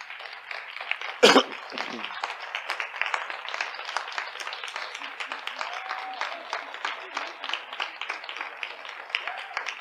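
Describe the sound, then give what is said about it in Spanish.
An audience applauds the pastors steadily, a dense, even patter of many hands clapping throughout, with one sharp, louder crack early on; faint voices may be mixed in. “No me interesa cómo usted lo diga, pero me gustaría que usted se levantara y como muestra de agradecimiento le dieron un pastor, ah, un aplauso a estos pastores.”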